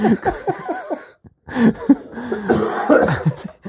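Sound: coughing and throat clearing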